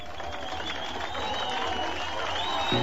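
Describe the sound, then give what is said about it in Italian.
A large crowd of West Berliners claps and cheers steadily as a festive crowd crosses the Berlin Wall from east to west, a dense wash of applause with scattered shouts and whistles rising above it, sustained throughout. “Un fiume di folla in festa passa. I berlinesi dell'ovest applaudono.”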